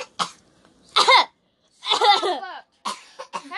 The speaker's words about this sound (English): That was him coughing. Yeah. It wasn't me. I don't have COVID. I don't have COVID. I don't have COVID too. That's just one of our employees.